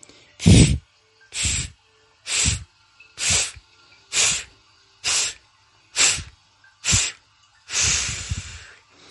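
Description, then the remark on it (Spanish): As a breathing exercise, a person fills their lungs and then blows eight sharp, forceful breath bursts through lips pursed as if to whistle until the lungs are empty, evenly spaced with short pauses, the last one longer and more drawn out; loud, with no talking. “expiras con fuerza, con vigor, como si quisieras proyectar el aire a gran distancia. No vaciar el aire de una sola vez, sino a ráfagas”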